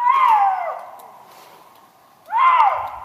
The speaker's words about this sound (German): Wer in abgelegenen Gebieten im Bayerischen Wald unterwegs ist, der kann es mitunter hören. Das Wolfsgeheul und die typischen Schreie vom Luchs.